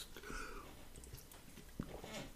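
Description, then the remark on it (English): A quiet sip from a can of LaCroix sparkling water, with soft slurping and faint fizzy crackle, a small gulp near the end and a sharp click as it finishes. No one speaks. “Sorry, I had a little sip of some Lacroix here it's not a plug, but I, you know, it's nice, nice to have.”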